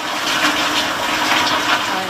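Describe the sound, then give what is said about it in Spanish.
A toilet flushing with the lid up, a steady loud rush of swirling water that holds at an even level for a couple of seconds with no voices. “Esto es lo que sucede cuando tiras de la cadena sin bajar la tapa.”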